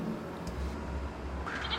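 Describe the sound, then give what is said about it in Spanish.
A goat in the living room of a house lets out a short, nasal bleat near the end, rising over a steady low rumble of background noise. No one speaks. “He llegado a escuchar ruidos de animales como cerdos y cabras, cabras en la sala de su casa.”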